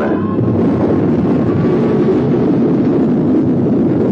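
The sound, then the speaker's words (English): An Atlas rocket's liftoff roar at engine start and ignition on November 28: a loud, steady, deep rumble that holds constant throughout, with a rough hiss on top and no break or buildup. “Engine start. Ignition.”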